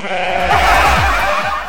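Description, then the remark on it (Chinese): A loud chorus of sheep and goats on a boat, twenty-six sheep and ten goats, bleating over each other, with a few wavering, nasal cries rising above a dense, continuous layer of animal noise. No one speaks. “一艘船上有二十六只绵羊和十只山羊”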